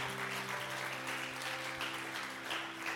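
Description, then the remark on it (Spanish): A crowd applauds steadily for about three seconds, a dense, continuous patter of many hands clapping at full volume, with a faint sustained musical tone humming underneath. “Amamos, ah, vamos, apláudelo si lo vas a aplaudir a él.”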